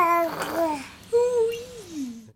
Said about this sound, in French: Avez-vous remarqué Bébé vous offre ce superbe arreux pile au moment où vous vous arrêtez de parler. Ce n'est pas un hasard. Il respecte les pauses de votre discours et se positionne en véritable interlocuteur.